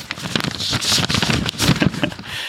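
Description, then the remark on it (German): A voice imitates the rustle of a postcard being pulled from a stack of papers in a prize draw: a moderately loud, breathy, papery scraping with uneven crackly bursts, lasting a couple of seconds without words. “weißt du noch, wie früher dieses Geräusch war, wenn die Leute das gedreht haben, dieser Papierstapel und dann diese, wie diese Postkarte da so rausgezogen wurde. Moment, ich mach das mal nach.”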